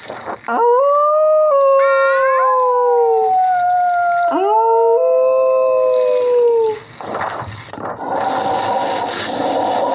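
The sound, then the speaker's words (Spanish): Several wolves howl together in a loud chorus of long, wavering tones that rise and slide downward, overlapping for several seconds before giving way to a rough, hissing noise. “La lluvia, los truenos y los aullidos de los lobos no hicieron más que aterrorizarla y desconcertarla.”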